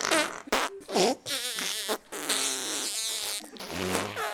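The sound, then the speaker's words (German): A rapid string of loud farting sound effects, several buzzy, wobbling bursts of varying pitch and length following one another with short gaps, no voices present. “Schon nach einer halben Stunde fing sie an zu pupsen.”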